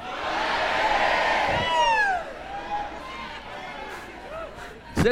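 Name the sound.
audience loudly shouting praise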